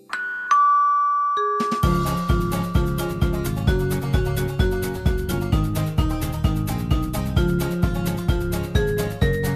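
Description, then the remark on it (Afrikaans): A bright two-note ding-dong chime rings out at the start, then a lively music track with a steady, punchy beat takes over and continues to the end. No one speaks. “kerk se klok sê dong, dong die voordeur klokkie sê ter, ter en die etens klokkie sê tingelingeling.”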